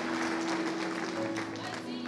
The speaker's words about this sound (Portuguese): Aí, amor, aleluia, obrigado, salva de palmas, aleluia.